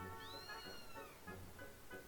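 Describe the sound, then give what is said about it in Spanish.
A cat lets out one long, drawn-out meow that rises and then slowly falls in pitch, over a low, steady background hum. “pero sí conocía al gato, y sin dar más giros, fue a verlo directamente.”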